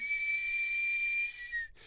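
A sweet potato cart's steam whistle blows one long, steady high-pitched shriek over a broad rushing hiss of steam, then cuts off abruptly near the end.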